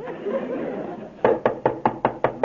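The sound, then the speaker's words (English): After a moment of low background hiss, someone raps on a door about seven times in a quick, steady rhythm, each knock sharp and fairly loud, with no one speaking. “I better knock on the bias here.”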